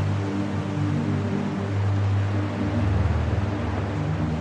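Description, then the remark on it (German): Calm sea at night with gentle waves, heard from a small paddled boat, a soft continuous, steady wash of water with a low droning hum running underneath and no voices. “Die See ist ruhig.”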